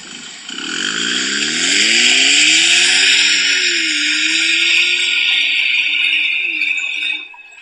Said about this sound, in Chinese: 一台路虎发现运动，你开在路上，那屁股后面排气汪汪汪的，真的很难听，很难听。我还特地找了一下这台车改完排气的一个声浪，反正也是转录一下，各位听一下吧。